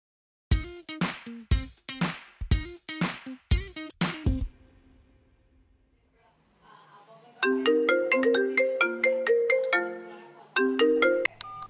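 A phone ringtone plays loudly: a rapid series of sharp electronic bursts, a short pause, then a bright melodic tune of repeating synthetic notes.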